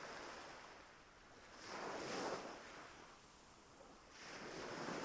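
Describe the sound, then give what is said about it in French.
Sea waves wash onto a beach in broad, rolling swells, one surge building around the middle and another near the end, with steady wind noise and no voices. “Vous dessinez cette plage consciemment ou inconsciemment et vous voyez Vous mettez des images sur ces différents sons, sur le son de l'eau,”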